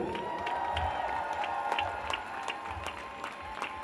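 A crowd applauds and cheers steadily, dense clapping forming a continuous wash with scattered sharp claps standing out, sustained across the whole clip without speech.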